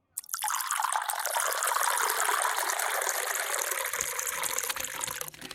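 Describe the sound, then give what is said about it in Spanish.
Water is poured steadily into bottles or containers to store it, a continuous hissing splash that starts abruptly and runs for several seconds, with slight gurgling changes as it fills. No one speaks. “Tratamos de envasarla en botellas o recipientes, pero eso es cansón a largo plazo.”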